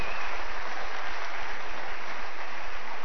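An audience claps together in a steady, dense wash of applause that holds at an even, fairly loud level for about three seconds, with no voices over it.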